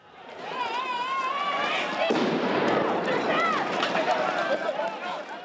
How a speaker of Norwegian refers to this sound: For mange nordmenn er dette lyden av den spanske krisa. Rasende spanjoler som protesterer i gatene mot nyfattigdom, arbeidsledighet og bolignød.